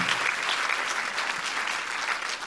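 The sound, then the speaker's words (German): Steady audience applause given for God fills the whole stretch, a dense, even wash of many hands clapping at a constant loudness with no voices standing out. “Lass uns unserem wiederherstellen Gott, lass uns mal Gott einen Applaus geben, weil er gut ist, weil er wiederherstellt.”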